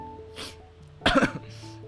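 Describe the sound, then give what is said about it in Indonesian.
A single harsh cough bursts out midway, preceded by a soft breathy exhale, with a faint steady hum in the background and no talking. “batuk kayak gini ya gitu”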